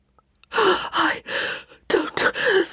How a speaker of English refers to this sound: She gasped for air.